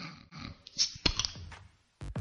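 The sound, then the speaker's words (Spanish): A few sharp metallic clicks and scrapes, then a quick burst of hiss as the tab of a can of beer is popped open, fairly loud, with no one talking. “Voy a abrirme una cervecita, lo que pasa es que ya de la lata, ya, ya ha sonado”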